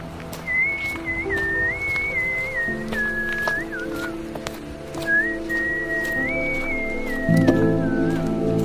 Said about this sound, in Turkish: Dudaklarıma bir ıslık yerleştirip aracıma yürüdüm.